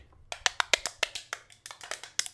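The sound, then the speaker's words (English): A rapid, uneven flurry of sharp wooden clacks, about fifteen crisp bright clicks in quick succession with a brief pause midway, from handheld clacker toys called smiley clackers being shaken. No one speaks. “And then there's uh, there's smiley clackers. We're just gonna call these guys smiley clackers, I think.”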